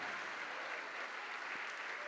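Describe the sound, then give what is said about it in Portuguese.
A church audience applauding to the Lord Jesus as people come forward, a dense, continuous wash of many hands clapping steadily at an even level with no voices standing out. “E a igreja vai aplaudir ao Senhor Jesus por cada vida que estiver vindo para frente.”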